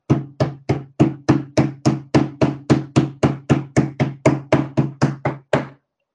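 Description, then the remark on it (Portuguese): A hand bangs on a table about twenty times in a steady, quick rhythm, each loud, dull thump with a low boom and short decay, then silence. No voices. “que eu falo, eu não tenho medo de falar, vou bater na mesa aqui, ó.”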